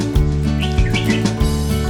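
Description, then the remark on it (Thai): Quick, high tailorbird chirps come in short bursts over a loud, steady musical backing with a pulsing bass beat, the chirps fairly faint against the music. “นกอะไรมาเกาะกิ่งไม้ ร้องจิบจิบ ร้องจิบจิบอ๋อนกกระจิบนั่นเอง”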